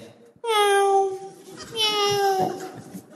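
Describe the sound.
A prisoner mimics a cat with two drawn-out, nasal meows while climbing over a wall, the first starting abruptly and sliding down in pitch, the second slightly shorter, both fairly loud.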